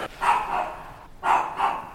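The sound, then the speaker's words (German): Inside a home during a paramedic call, a dog barks in two pairs of sharp, mid-pitched woofs with a short pause between them. The barks are moderately loud, with no voices present. “Und der Hund bellt immer noch.”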